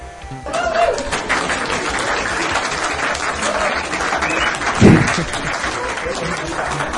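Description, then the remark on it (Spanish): Sustained applause from an audience, a dense steady wash of many hands clapping that swells quickly at the start and holds loud throughout, with a brief louder burst near the end. “Fuerte aplauso de nuevo, por favor.”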